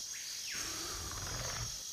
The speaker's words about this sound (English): At 71 minutes and 7 seconds, Dieter starts wildly throwing the shock prod around, trying to zap the compy, but it's too quick for him and hops away, hooting and chirping.